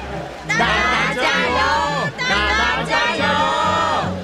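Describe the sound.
A crowd cheers and shouts loudly, many high voices overlapping in rising and falling yells, surging in waves for about four seconds after a brief quiet start.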